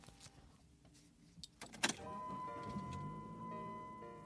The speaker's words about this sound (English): Leah pulled out the seatbelt and buckled up.